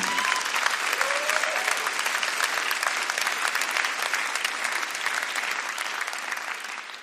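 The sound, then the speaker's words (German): An audience applauds the Lord steadily for about seven seconds, a dense, even patter of many hands clapping at once with no clear rhythm, holding its loudness before easing slightly at the end. “Vielleicht können wir dem Herrn mal einen richtigen Applaus dafür geben.”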